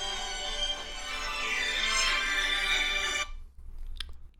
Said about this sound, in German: Ah, ich kriege einen Anruf. Das passt ja auch. Moment.